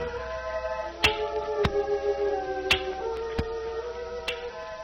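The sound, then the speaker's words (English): A man's walking cane taps the ground five times at an uneven, unhurried pace, each tap sharp and distinct, set against a steady, sustained musical drone. “Ah, here comes another one. I can hear his cane tapping.”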